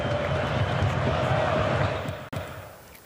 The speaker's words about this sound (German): viel Jubel auch auf dem Betzenberg. Nach zuletzt zwei Niederlagen hat der FCK gestern wieder gewonnen. 3 zu 1 gegen Fürth.